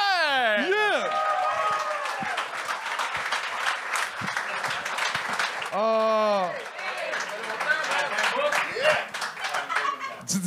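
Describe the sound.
Sustained audience applause, a dense wash of many hands clapping at steady loudness for about ten seconds, with bright whoops and cheering voices rising above it at the start and midway.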